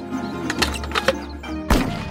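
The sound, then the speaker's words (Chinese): A single loud gunshot from a hunting rifle, fired at a bird during a hunt, bursts out sharply after a stretch of faint clicks and rustling, then trails off in a brief rumbling decay. No one speaks. “砰的一声枪响。”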